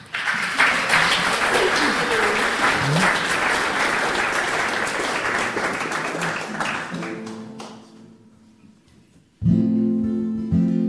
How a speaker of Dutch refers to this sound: Geef hem een applaus.